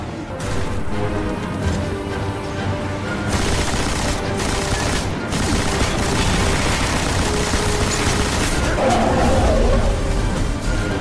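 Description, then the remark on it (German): Loud, sustained rapid gunfire from a heavy machine gun rattles on in bursts for several seconds, with heavy noisy clatter and a few sharper blasts standing out along the way. “Er schnappte sich die schwere Waffe und stürmte auf den Befehlshaber zu. Die Feuersalve war selbst für diesen Gegner zu viel und verging im Kugelhagel.”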